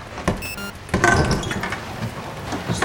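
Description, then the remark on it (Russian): A door is opened: a short click, a brief creak-like squeal, then a louder rush of movement and rumbling noise that carries on for a couple of seconds. “Открывать? Открывай.”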